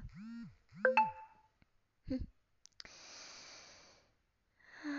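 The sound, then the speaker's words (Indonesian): A brief electronic phone notification chime rings out once from a phone not set to silent, among soft vocal sounds, followed by a breathy sigh and rustling noise. “suara notif kan emang lupa lupa enggak gue silent tapi gak apa-apa deh gue silent dulu nah udah gue silent gak bakal ada yang ganggu”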